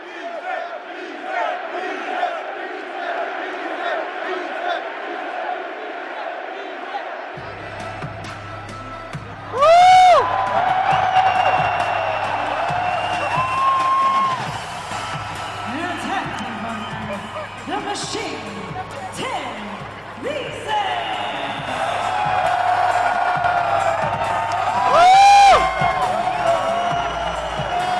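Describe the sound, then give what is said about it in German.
A wrestler's entrance theme with a cheering crowd: loud crowd roar, then a pounding, bass-heavy theme kicks in, punctuated by two sharp rising swells and whoops over the steady cheering. “Sechs Länderspiele und bei mir klingeln gerade die Ohren, weil ich glaube, jetzt ertönt schon sein Entrance-Theme.”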